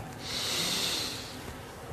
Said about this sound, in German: Wir nehmen zusammen mit der ganzen Gemeinschaft und mit mir einen tiefen Atemzug und atmen ein.